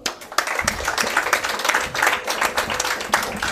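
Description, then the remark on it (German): A crowd applauds steadily for the people who came up on stage, many hands clapping in a dense, continuous patter that stays fairly loud throughout with small swells, and no voices stand out. “Herzlichen Applaus für euch nochmal.”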